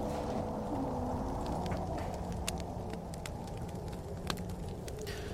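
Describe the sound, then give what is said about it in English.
A campfire crackles steadily, with scattered sharp pops and snaps over a low, continuous roar, and no one is speaking. “I said as our new quintet sat around a campfire, now clutching steaming brandy and wrapped in yet more furs to keep out the biting north wind.”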